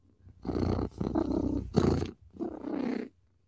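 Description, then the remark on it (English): A person imitates a cat's purr with a rough, rumbling throat sound in about four breathy bursts, moderately loud, with no other talking. “I'm purring. When I'm purring, I'm happy.”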